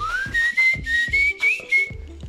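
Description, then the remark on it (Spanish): A short whistled brand jingle tune, rising then holding a bright steady pitch over a punchy rhythmic backing of about six even beats, loud, with no talking. “Ese sonidito te recuerda a algo, a una marca.”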